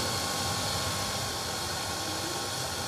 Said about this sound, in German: Reicht denn mein Föhn bis oh, da hinten hin? Du kannst da hinten auch noch föhnen.